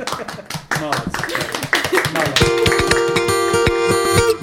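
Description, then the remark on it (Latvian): A short burst of applause, brisk, overlapping claps from a few pairs of hands, gives way about halfway through to a bright musical jingle with sustained tones and a steady beat. “Tiešām ap, ap, aplausi.”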